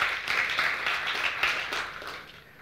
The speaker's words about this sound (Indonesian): Coba tepuk tangan untuk Tuhan yang luar biasa.